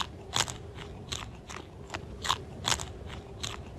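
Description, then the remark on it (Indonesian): Greedy, crunchy chewing of a grasshopper eating food prepared for it by an ant: a quick run of bright, crackling bites repeating every half second or so, over a low steady rumble, with no one talking. “Belalang pun memakannya dengan lahap.”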